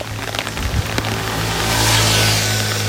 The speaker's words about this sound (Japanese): 今ねココイチココイチのさカレーの宅配屋さんが通ったんだけれどもなんかこれもこういうのもちょっと楽しいかな